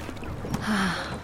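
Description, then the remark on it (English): Water of the Seine in Paris laps softly against a rowing boat in a short, continuous wash, with a faint low hum swelling briefly near the end. No voices. “The Seine, the lapping of its transparent water, the sun flooding its banks, and far away, bathers swimming about gracefully.”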